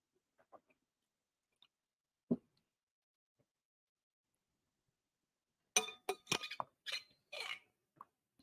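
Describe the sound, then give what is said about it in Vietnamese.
A quiet stretch with a few faint taps, then a cluster of bright glassy clinks and knocks near the end, as a glass of water is handled and set down while someone drinks. “cho uống miếng nước để chuẩn bị trả trả lời câu hỏi tiếp”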